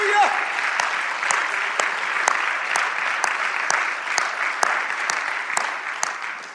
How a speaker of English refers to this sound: Let's clap our hands for that, shall we? Hallelujah!